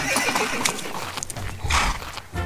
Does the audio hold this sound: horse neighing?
yes